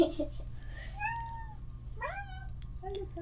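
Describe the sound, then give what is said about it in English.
A cat meows several times in drawn-out, rising and falling calls, clear over a low steady background hum, with no talking. “there's a lot of cat in it so far.”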